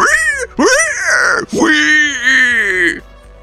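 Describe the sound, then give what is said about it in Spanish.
A person imitates a pig's orgasm sounds with three loud, drawn-out groaning squeals, each sliding up and then down in pitch, the last one longest. “¿Sabes cuánto dura el orgasmo de un cerdo?”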